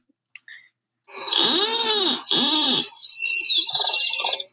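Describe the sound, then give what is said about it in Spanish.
A white-tipped plantcutter (Phytotoma rutila) sings alone: two loud, creaky, bleating calls, then a harsh buzzy stretch, all with a grating quality like a rusty door. “Ese ha sido, ese es el canto de Fitotoma Rutil, es muy característico dentro de la mancha urbana se lo puede ver en troncos secos mayormente”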